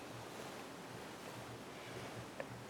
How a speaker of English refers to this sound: Inhale. The waves are running in.